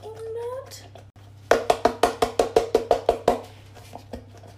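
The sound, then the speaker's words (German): Liquid pours into a measuring jug, up to 400 millilitres, in a quick run of rhythmic glugging splashes that spray a little, about a dozen fairly loud bursts that stop abruptly, preceded by a brief murmur and a steady low hum. “Ah, du spritzt ein bisschen.”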